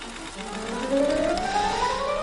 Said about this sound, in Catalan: aquest so de màquina cosí, aquest, mm, aquesta veu del Daniel Lewis eh, interpretant a Reynolds Woodcock, un modista fictici dels anys 50 a Londres